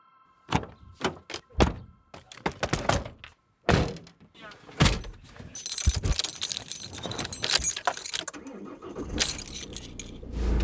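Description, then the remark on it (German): Keys jangle in a quick series of bright metallic clinks, followed by thunks and rustling as someone climbs into a city transporter van in Hagenow to drive to Berlin, with a dense clattering of movement toward the end. “Wir sind jetzt im Stadttransporter in Hagenow eingestiegen und fahren jetzt nach Berlin.”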